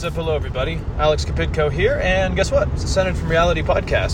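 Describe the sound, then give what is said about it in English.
A constant low rumble of a car interior driving on a highway through Wyoming drones underneath, while a man talks over it the whole time. “I want to just start by caveating and saying that I apologize for the rumbling noise you are hearing and just the bad audio quality in general.”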